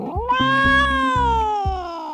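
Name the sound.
cat meowing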